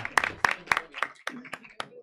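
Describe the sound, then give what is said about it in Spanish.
A TV studio audience gives a short burst of applause for a volunteer picked from the audience: sharp, steady claps, roughly eight in two seconds, fairly bright and even, with murmuring voices running underneath. “Un aplauso.”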